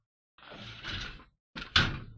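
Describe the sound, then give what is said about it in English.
A drawer scrapes along its runners for about a second, pauses, then slides again and shuts with a firm thump as someone searches it for a missing item. No one speaks. “supposed to be right here in this drawer.”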